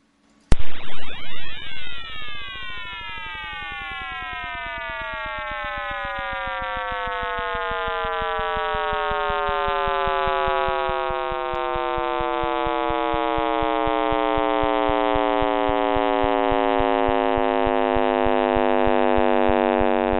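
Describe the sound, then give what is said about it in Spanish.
A simulation by scientists of the sound of the Big Bang, the first sound of the universe, bursts in abruptly, then becomes a loud, continuous synthetic roar of many tones gliding steadily downward and slowly swelling, with no voices present. “Vamos a escuchar muy atentamente, porque según esta simulación, según los científicos, este es el sonido del Big Bang, el primer sonido del universo.”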